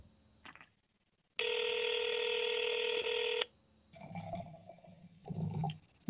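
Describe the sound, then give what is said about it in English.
A single steady electronic ringback tone from an outgoing phone call, lasting about two seconds, followed by quieter muffled rustling and clattering sounds. “You guys hear this ringing?”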